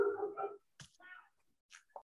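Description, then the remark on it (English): A dog barks a few times outside, starting with a longer bark and then a couple of short, sharp yips spaced apart. The sound is faint. “Did y'all hear that dog outside?”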